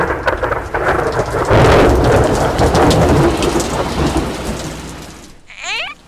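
Heavy, steady rain hisses while a deep rumble of thunder swells and rolls beneath it; the downpour cuts off near the end, leaving a brief, wavering high-pitched call.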